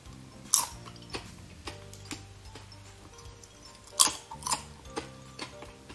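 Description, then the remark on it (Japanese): Crisp, dry crunching of Pariko chips, thin, well-dried, semi-translucent bonito slices with no additives, being chewed: a string of sharp, irregular crackles, with two louder bursts of snapping among quieter ticks, and no talking. “いかにパリコがパリパリするか口の口に入れて出してみたいと思いますこれこの音わかるこの軽い音よく乾いてんですよ薄切りの半透明のねカツオスライスがいっちゃうよ”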